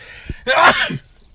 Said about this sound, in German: Oh, ich muss gleich niesen hier, tut mir leid.